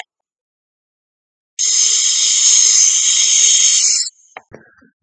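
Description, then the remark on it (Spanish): A loud, steady whoosh of hard blowing lasts about two and a half seconds, a person huffing like a wolf blowing down a little house, then cuts off into a few faint knocks and rattles. “Y el lobo sopló y sopló, y la casita derrumbó.”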